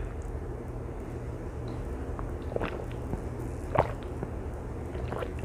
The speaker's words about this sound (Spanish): Yo sé que me suena la garganta cada vez que trago y yo sé que a mucha gente me imagino que le da sed cada vez que me escucha tomar agua, porque estoy tomando agua y por eso hago esto silencio para las personas que me están escuchando